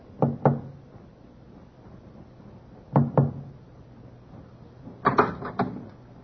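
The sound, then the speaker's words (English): Quiet, discreet knocking by First Officer Forsyth on the wooden door of cabin B-24 aboard a ship at half past two: a pair of soft raps, a pause, another pair, then a quicker cluster of three or four knocks. No voices. “First Officer Forsyth, with Watchman Petrie at his elbow, knocked discreetly on the door to B-24.”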